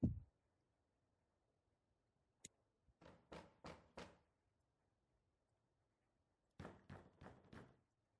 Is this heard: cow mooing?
no